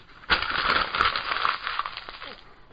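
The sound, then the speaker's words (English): Paper notes being crumpled, a dense, continuous crackling and rustling that starts abruptly and lasts about two seconds before fading out, with no voices. “It's the sound of my notes.”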